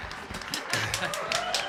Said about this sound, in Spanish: Es que se oyen unos aplausos, güey.